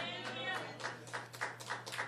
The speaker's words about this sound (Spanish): Aplauda, hermano, aplauda, dele gloria a Dios, hermano, dele gloria a Dios, hermano.